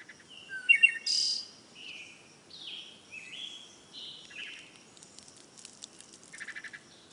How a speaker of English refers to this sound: So, birds chirping outside your window may indicate normality, perhaps because as a species, we've been used to that sound every morning for millions of years.